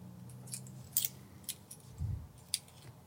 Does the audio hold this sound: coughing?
no